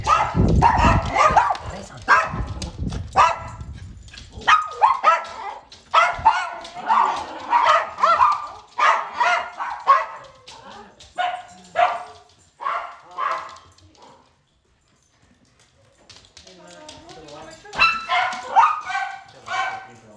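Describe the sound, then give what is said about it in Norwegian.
A dog barks over and over in quick, loud bursts, with a few yips mixed in, pausing briefly before the barking picks up again. “Vi har hørt med hundebjeffing.”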